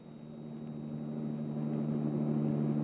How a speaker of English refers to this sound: We let the truck get a good 20 minute start on us, and then the ultraviolet lamp was attached to the hood of our car. Frank started the motor, and we pulled out into the street.